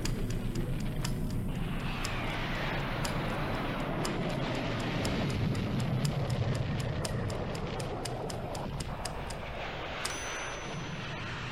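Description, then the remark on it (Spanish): A formation of Hawker Hunter jet fighters, led by commander Mario López Tobar and approaching from Concepción after Allende's message, roars overhead in a loud, steady, rumbling wash of noise that persists throughout, with faint crackles and ticks scattered on top. “Después del mensaje de Allende, una formación de aviones Hawker Hunters, liderados por el comandante Mario López Tobar, se acerca desde Concepción.”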